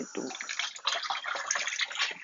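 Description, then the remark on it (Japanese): Water runs steadily from a tap while dishes are being washed, a continuous splashing hiss that fills the whole clip, fairly loud, with no pauses. “これ水の音結構入っちゃうのかな。”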